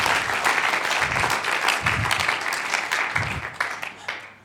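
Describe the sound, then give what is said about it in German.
A crowd claps steadily, giving applause to God, in a dense, sustained burst of applause, holding strong throughout before starting to taper off at the end. “Merci vielmals, wir geben Gott Applaus für das.”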